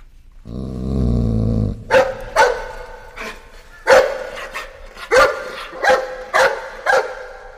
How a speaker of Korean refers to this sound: 그때 진돌이가 크게 막 짖는 거예요.